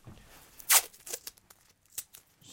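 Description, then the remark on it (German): Adhesive tape is ripped off its roll in one sharp, crackling tear to stick up a bird-flock decoration strung across a room, followed by a few smaller rustles and peels, with no one speaking. “Ah, halt, du kriegst noch ein Klebeband. Ja. Du kannst es festkleben.”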